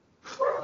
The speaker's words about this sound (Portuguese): peraí que tem um cachorro no fundo é, aí, não sei quem, de quem, quem que é.